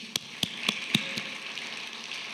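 applause

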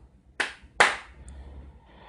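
applause

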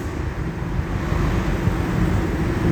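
truck passing by outside

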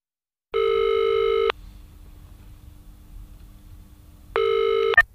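telephone ringing tone

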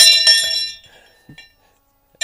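small bell ringing

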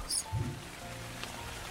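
rain falling

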